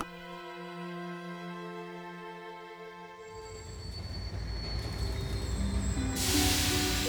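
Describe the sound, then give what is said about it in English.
A sustained, high metallic squeal rings out from a train at night, then gives way to a rumbling train clatter, and a loud burst of hissing steam bursts in near the end. No voices. “From outside came the sounds of hissing steam and squeaking metal.”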